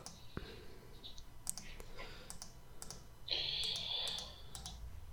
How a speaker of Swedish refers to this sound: Nej, de visar inget. Jag klickar förbi. jag klickar också förbi.